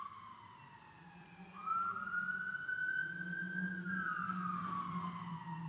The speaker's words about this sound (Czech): Prostě už si zvykněte, že takový soundtrack mým podcastům jsou zvuky houkaček.